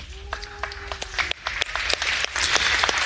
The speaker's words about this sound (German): Ja, in diesem Applaus steckt viel drin. Überraschung, Verblüffung, Resignation für die einen, ein bisschen Anerkennung eventuell auch.